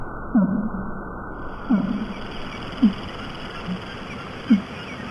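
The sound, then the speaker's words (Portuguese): A fin whale's infrasonic pulses, recorded by Cornell researchers on a network of US Navy hydrophones and sped up into audible range: short downward-sweeping low thumps repeating about every second and a half over a steady hissing, rumbling background, no voices. “O som foi manipulado, acelerado, para nos permitir escutar o pulsar infrassónico da baleia comum.”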